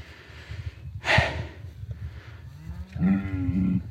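A cow lets out a loud moo, with a harmonic low bellow that rises and holds for about a second, following a sharp snort-like breath amid low outdoor rumble.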